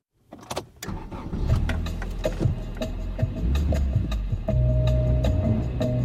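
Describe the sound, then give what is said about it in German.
A car engine cranks and catches, then settles into a steady low rumble as the car drives off on a road trip in southern Sweden in summer 2019, windows rolled down, with occasional clicks and knocks over the continuous engine drone. “Sie sind für eine Rundreise mit dem Auto gebucht. Karl und Dan haben die Fenster heruntergekurbelt, genießen den Fahrtwind”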